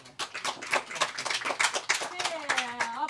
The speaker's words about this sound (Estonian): teeme siis mõlemale veel kord ühe aplausi.